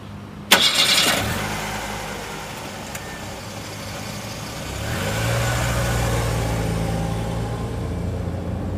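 A car engine cranks with a sharp burst, then catches and settles into a steady low idle that hums on for several seconds, fairly loud, with no voices.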